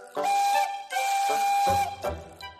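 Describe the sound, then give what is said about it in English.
The whistle of an emerald green steam engine sounds with two long, loud, breathy blasts in quick succession, followed by a short lower burst as the sound fades out. No one speaks. “an emerald green engine who can pull passenger coaches or freight and has a whistle that sounds like this.”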